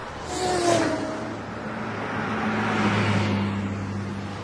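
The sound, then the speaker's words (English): Busy road traffic with cars whooshing past in overlapping swells over a steady low engine rumble and hum; no one speaks. “The cars roomed, their horns beeped.”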